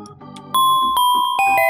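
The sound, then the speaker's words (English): A clear, bright two-note doorbell chime rings out, a ding followed by a lower dong, each tone ringing and sustaining before fading, with no voices present. “Ding dong.”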